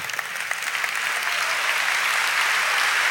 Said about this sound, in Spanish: Ay, este aplauso está mejorando.